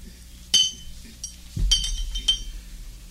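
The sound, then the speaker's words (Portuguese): Glasses clink together in a toast to a probable engagement, a few bright, ringing chimes in quick succession, with a low rumble underneath and no talking. “Ah, façamos um brinde ao nosso provável noivado.”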